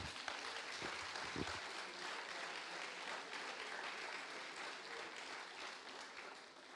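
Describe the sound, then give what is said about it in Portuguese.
Sustained audience applause for Jesus, a dense wash of many hands clapping at a steady level for several seconds, with a couple of sharper individual claps near the start. “Dá para você aplaudir a Jesus por isso?”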